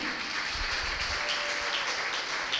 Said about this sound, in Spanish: Lo aplaude, lo aplaude.